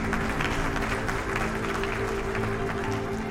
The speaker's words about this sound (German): Während neben Christel Hoffmann spontaner Applaus aufbrandet, blickt sie zu Lars und Maike Schlecker.